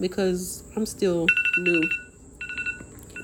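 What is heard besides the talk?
phone alarm ringing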